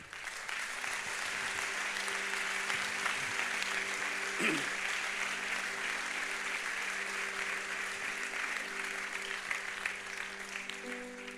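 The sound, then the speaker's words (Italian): An audience at a worship service applauds God as King, steadily for several seconds, a dense, even wash of clapping that fills the room, with faint sustained tones and a few voices underneath. “Facciamo un applauso al Re.”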